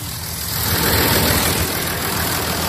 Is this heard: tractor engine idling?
yes